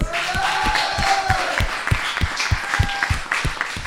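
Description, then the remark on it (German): An audience applauds loudly and continuously, a dense wash of many hands clapping with a steady, evenly spaced rhythmic pulse running through it for about four seconds. “Alright, geben wir einen Applaus.”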